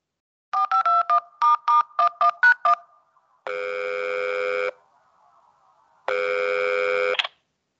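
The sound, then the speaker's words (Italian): A quick run of about eleven short keypad beeps as a phone number is dialed to call a guest on air, followed by two long, steady ringback tones separated by a pause, clear with no talking. “Proviamo a chiamarlo, dai, prova, prova. Aspetta che faccio il numero.”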